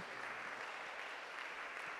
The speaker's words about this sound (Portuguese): Bate palmas aí para Jesus, vai.